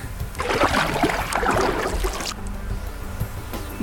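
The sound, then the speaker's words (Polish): A short burst of splashing, rippling water, a map app's sound effect marking a body of water, loud for about two seconds, then cutting off abruptly to a faint low hum with no voices. “Ale następny bardzo ciekawy dźwięk, o którym już wspomniałem, sound of water.”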